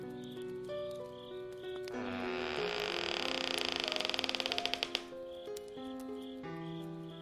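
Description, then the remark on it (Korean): A door slowly creaks open over soft background music, a drawn-out groaning creak that breaks into quick, rattling clicks before stopping, leaving the music to continue alone. “볼일을 마치고 문을 열었다.”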